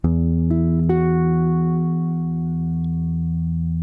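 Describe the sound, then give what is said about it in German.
A low, sustained instrument tone on the root note E holds steady while a second note enters and rings alongside it, forming a major third above the root. The notes are clear, with no voices. “Die Durterz, also 1, 2, 3.”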